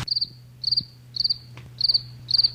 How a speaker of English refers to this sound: Why are there crickets in here in November?